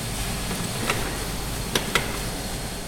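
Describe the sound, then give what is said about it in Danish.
A steady mechanical roar of a coffee roaster turning the beans, with a few sharp metallic clicks and scrapes as the trier, a sampling spoon, slides into the roaster and is pulled back out with a small handful of beans. No one speaks. “Det lyder sådan her, når han tager skeen ind og ud.”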